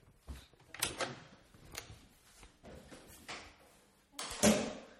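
A front door being opened by someone answering to see who is there: a series of clunks, rattles and scraping knocks of the latch and frame spread over a few seconds, ending in a louder clattering thud.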